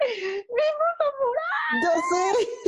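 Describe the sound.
A voice imitates excited fan screaming: a run of high-pitched, wavering squeals and shrieks, loud and in quick bursts, with a second voice joining toward the end.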